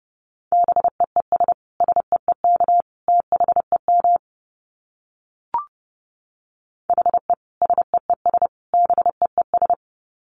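Fast Morse code at 30 words per minute in a single steady mid-pitched tone, quick dits and dahs keyed in two clear bursts separated by a short pause with a faint click, loud with no talking.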